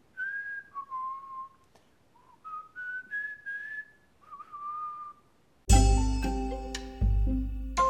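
Someone whistles a casual, wandering tune with short rising and falling phrases while looking upward, clear, then a sudden burst of bright, busy music with chiming tones takes over.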